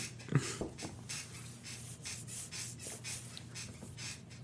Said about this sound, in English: That's my chair squeaking. I'm gonna sit. Dude, it's been squeaking this whole time, and honestly, whenever you're talking, I'm like, squeak, squeak, squeak, squeak, squeak, squeak. squeak, squeak.